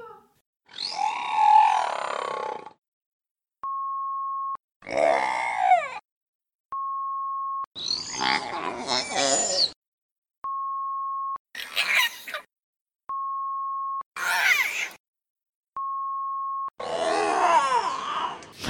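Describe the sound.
Orca calls imitate sounds of other animal species from the orca's habitat that were played to them: six loud bursts of grunting, groaning, squealing vocalizations, each separated by a short steady electronic beep, with no talking over them.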